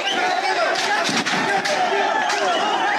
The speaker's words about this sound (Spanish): Pero cuando dos candidatos quedaron en la recta final, Iniciaron los gritos, luego los golpes. Y al final los disparos.